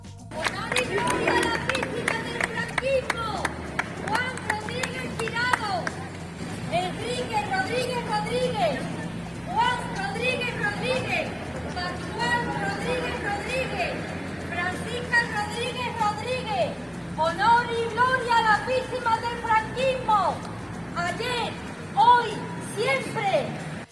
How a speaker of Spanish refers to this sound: En el momento en que salía el coche fúnebre se pudo escuchar un grito a la memoria y la justicia.